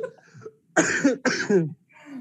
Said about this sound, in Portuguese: Ai, tô tossindo aqui. Não é Covid, mas é.